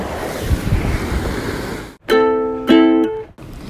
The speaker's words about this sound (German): Und es ist so entspannt, hier vorne zu sitzen, die Füße über die Reling baumeln zu lassen, ab und zu ein paar Spritzer von der Welle mitzunehmen.